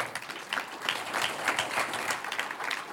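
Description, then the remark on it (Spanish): A church audience breaks into steady applause for the Lord, many hands clapping together in a dense, bright wash of sound that holds at an even level throughout, with no voices standing out. “Un aplauso al Señor.”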